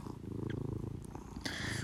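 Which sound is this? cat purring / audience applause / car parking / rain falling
cat purring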